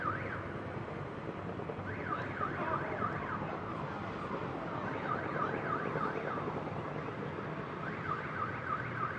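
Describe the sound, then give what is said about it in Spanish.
Car alarms warble in repeated bursts of rising and falling tones over a dense, steady roar of outdoor city noise in Bogotá, set off amid gunpowder and fireworks as Independiente Santa Fe fans celebrate. No one speaks. “Bueno, con la pólvora, los fuegos artificiales y todo eso, pues algunas alarmas de los coches suenan también.”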